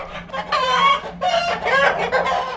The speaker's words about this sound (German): die Hühner sind blöd und gackern dämlich rum und picken und finden hin und wieder auch mal ein Korn